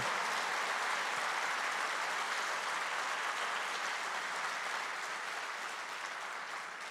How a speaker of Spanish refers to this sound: Aplaudan a Él, que Él es el que nos va a responder.